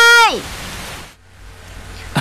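Steady rain hisses evenly after a brief, high falling tone at the start, then drops to a softer, lower wash partway through and keeps going to the end.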